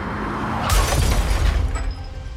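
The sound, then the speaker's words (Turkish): Princess Diana's car, chased by paparazzi, slams into a wall in the tunnel under the Alma bridge in Paris after the driver loses control: one sudden loud crash with shattering, then about a second of heavy low rumbling and debris noise that fades away. No one speaks. “araç duvara çarptı.”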